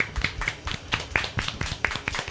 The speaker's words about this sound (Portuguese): Palmas, palmas gente.